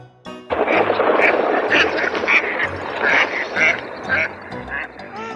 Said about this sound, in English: The ugly duckling runs to a marsh. he sees big marsh ducks.